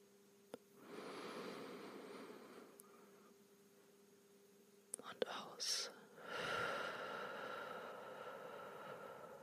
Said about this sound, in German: Wir atmen nochmal tief ein.